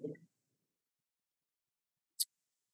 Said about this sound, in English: We're going to do the most metal thing possible and roll twenty sided die.